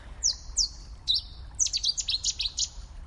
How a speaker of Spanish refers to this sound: cerca del río. Y aquí que, se ha dignado un pajarillo a, a, hacernos la introducción del podcast.